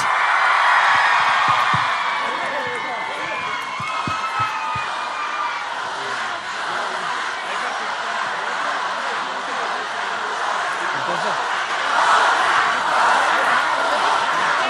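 A large crowd at a live show cheers loudly and continuously for a performer, a dense wash of shouting, whooping and hollering that holds steady for the whole stretch, swelling slightly near the end, with scattered voices poking through.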